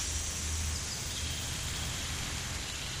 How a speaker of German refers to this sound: Du guckst nach oben und blickst auf eine wahnsinnige Vielfalt von Grün und dabei lauschst du der einmaligen Geräuschkulisse des Regenwaldes.